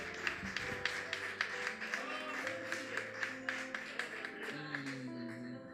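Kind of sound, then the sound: crowd, audience applauding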